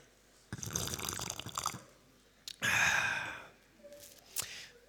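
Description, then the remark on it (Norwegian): Water is poured into a glass for a person in two bursts, a longer splashy pour and then a shorter one whose pitch rises as the glass fills, followed by faint clinks and drips. “ja du, du heller til meg. Wow. Tenk hvis du tømte utover Mac-en min her.”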